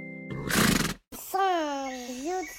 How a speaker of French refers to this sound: Attention, 1, 2, 3, jingle